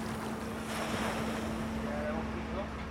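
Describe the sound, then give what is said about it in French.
Outdoor harbour ambience on a pontoon of a sailing base in Lorient, France, in front of the basin, with a steady wash of water and wind around moored boats, a constant low hum running underneath throughout, even in level. “Ce jour-là, je me balade sur un ponton de la base et je me heurte presque à ce panneau ancré au sol devant le bassin.”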